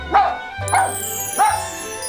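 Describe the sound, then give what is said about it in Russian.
A young dog, the family's puppy Tishka, gives three sharp, high yips about half a second apart, fairly loud, with a faint low hum running underneath. “Это собака ваша? Тогда еще щенок”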